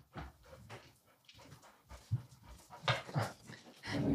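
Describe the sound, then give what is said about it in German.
Dogs that have just walked in pant in quick, breathy bursts, with a few soft whimpers mixed in. The sounds come in uneven clusters and grow a bit louder toward the end. “Also jetzt gerade sind unsere oder oh, sind, sind die Hunde reinmarschiert?”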